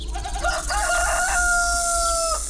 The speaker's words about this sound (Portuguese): Foi fazer isso e o galo cantar.